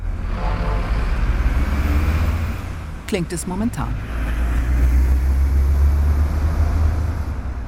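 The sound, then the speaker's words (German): Dense, continuous roar of traffic on the Frankenschnellweg expressway, used by 40,000 to 60,000 vehicles a day, with heavy low rumble and passing vehicles, a brief bird chirp breaking through midway, and a voice speaking briefly at the start. “Der Frankenschnellweg. Jeden Tag sind hier, je nach Schätzung, zwischen 40 und 60.000 Fahrzeuge unterwegs. Sie verursachen Dreck, Lärm, Gestank.”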